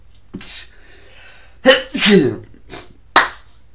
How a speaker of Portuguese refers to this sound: Olha, vê um espirro.